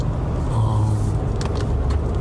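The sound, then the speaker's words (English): An oncoming car drives past on a dark road at night, its engine rumble steady and loud with a rising whoosh of tire and wind noise over about two seconds, no voices present. “He comes to the realization that he shouldn't be on a phone while driving on a dark road at night it's a good time to come to that realization just before oncoming traffic is heading your way.”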